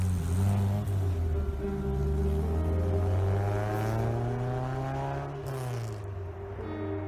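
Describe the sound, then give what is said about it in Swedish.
A car engine starts up in a small alley minutes before four in the morning and runs loudly, its steady hum climbing in pitch as it revs and drives away from the spot, with no voices present. “Minuterna innan klockan 04 hör ett vittne hur bilen startar upp i gränden och kör från platsen.”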